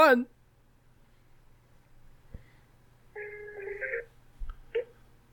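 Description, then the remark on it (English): The phone key 1 is pressed in answer to an automated car warranty call: a steady two-tone keypad beep lasts about a second over a low electrical hum, followed by a couple of clicks and a short chirp as the call connects to a warranty specialist. “Again, press 1. Let's press one.”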